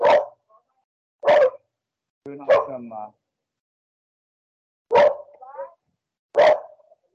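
dogs barking

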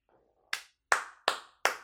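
hand clapping

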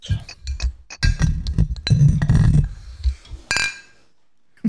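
drinks clinking together

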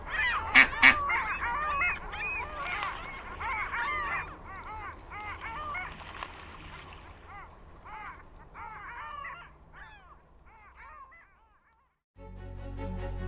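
ducks quacking

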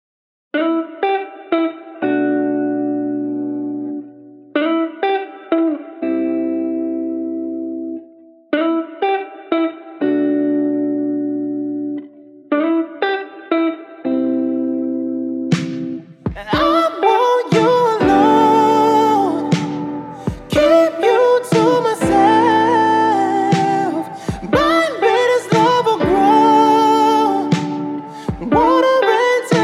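song

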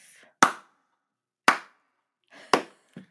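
slow clap

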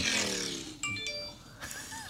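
phone ringtone

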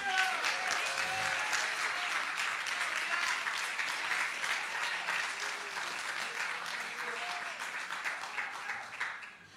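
loud audience applause

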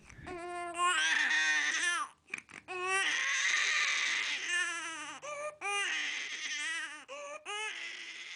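newborn baby crying

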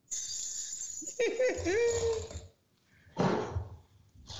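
jingle bells sound effect

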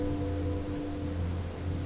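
heavy rain pouring down

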